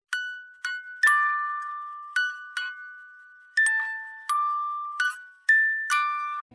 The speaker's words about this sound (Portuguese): Ambos os sons são de uma caixinha de música. O primeiro é uma canção de Ninar. Escute!